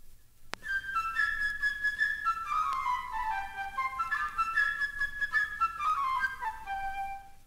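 A light, playful flute melody, standing for the little bird, Peter's friend, in Peter and the Wolf, flutters alone in quick, high-pitched phrases, trilling and then sliding downward in bright runs that repeat over a few seconds.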